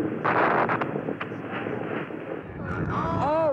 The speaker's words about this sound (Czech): Raketoplán Challenger se před zraky zmatených diváků, fanoušků a rodin astronautů po explozi rozpadá na kousky. Všech sedm lidí na palubě okamžitě umírá.